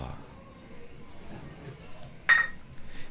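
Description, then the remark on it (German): A single bright clink of glasses touching in a toast, outdoors in the sun, rings out sharply, decaying quickly over a quiet background with faint murmuring voices. “Chin Chin. Prost.”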